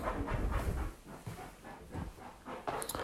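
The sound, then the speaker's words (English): A pet named Don scratches at a couch in a run of rough, raspy strokes, fairly loud and irregular, with a few brief pauses and no talking. “Don is scratching the coach.”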